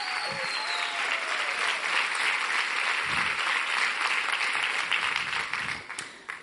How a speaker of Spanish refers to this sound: A ver si le queremos dar un aplauso al Señor.